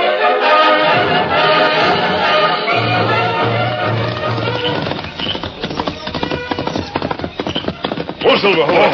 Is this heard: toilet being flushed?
no